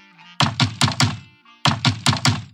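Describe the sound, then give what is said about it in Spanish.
Two quick bursts of knocking on a wooden door, four solid raps each, separated by a short pause, fairly loud, with faint soft music in the background. “Después, el lobo va a la casa de madera y llama a la puerta.”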